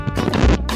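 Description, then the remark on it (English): A loud thud and rattle as a microphone gets knocked, with a heavy low-end bump in the middle and a brief clattering scrape, no voices. “sorry about the noise. I landed the microphone.”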